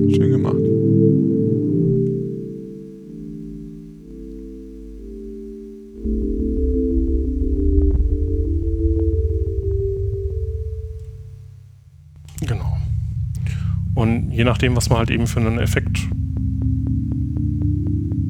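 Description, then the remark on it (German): A modular synthesizer drones low, then a steady run of short, woody clave-like clicks ticks over it in a quick rhythm, with a man talking over the synth near the end. “klingt jetzt schon fast wie so Klanghölzer teilweise oder ja.”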